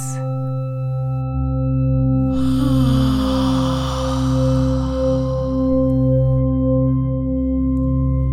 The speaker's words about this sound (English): I invite you to relax the muscles of your jaw and your mouth. for this, I'd like you to yawn. As if you'd get up in the morning, open up your mouth.